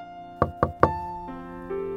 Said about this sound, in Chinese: 这时，有人轻轻地敲门。